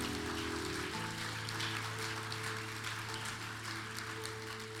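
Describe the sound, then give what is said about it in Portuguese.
An audience at a church service applauds the Lord steadily, a dense crackling wash of clapping, over sustained keyboard chords that shift to a new harmony about a second in. No one speaks. “Aplauda o Senhor por isso, irmãos.”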